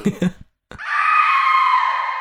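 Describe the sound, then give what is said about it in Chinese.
A short burst of low voice-like sound, a brief silence, then a long, piercing high-pitched scream in a dense forest that holds loud and steady for over a second before slightly dropping in pitch. “这时，一声尖叫穿透了整个密林，鸦雀全都被震得飞离了林子，野兽们也停止了嚎叫，退回到自己的洞穴。”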